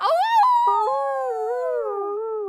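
A dog howls in one long, wavering cry that rises and bends in pitch, loud, with no other voices or sounds around it.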